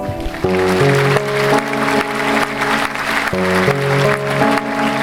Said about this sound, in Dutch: Goed, ehm, ja, dan kunnen we blijven klappen, denk ik.